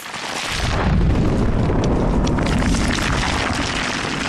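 A deep, roaring earthquake rumble swells in within half a second and holds loud and steady, a dense low-heavy crashing roar with no voices over it.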